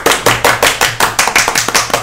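A short round of applause for Manu Gavassi: sharp hand claps in a steady, even rhythm, about four per second, fairly loud and with no voices over them.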